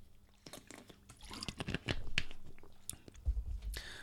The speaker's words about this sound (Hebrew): Uh, שלוק של מים, כי דיברתי הרבה, ונמשיך.